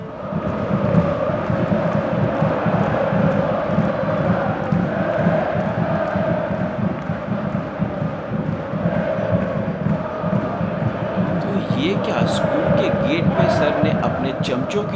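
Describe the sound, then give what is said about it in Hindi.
A large crowd cheers and shouts 'hip hip hurray' together in a steady, loud roar, with many overlapping voices and bursts of sharp clapping near the end, welcoming a school team back at the school gate after it beat DPS by 55 runs. “टोली पहले से ही सेट कर रखी थी एक स्टिपुलेटेड टाइम पे और घुसते ही हिप्पे फुर्रे की तालियों से टीम का स्वागत हुआ हिप्पे फुर्रे हिप्पे फुर्रे हम डीपीएस को 55 रन से हरा के आ गए”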